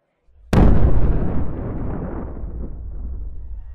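A loud explosion that brings down the Ponte Picard bridge and leaves flames bursts suddenly after a brief low rumble, then a long heavy roar and rumbling debris trail off slowly, with no voices.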